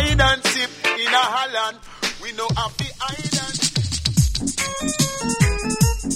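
A reggae song plays loud, with a sung vocal line over steady bass and drum hits, then bright keyboard chords stabbing in a bouncy rhythm.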